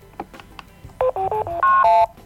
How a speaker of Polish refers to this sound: Aha, jeszcze ją wyłączyłam. Gotowa. Dobrze. To nawet dobrze, że ją wyłączyłam, bo słychać było dźwięk wyłączania tej wagi.